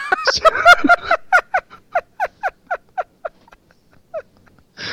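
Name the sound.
cat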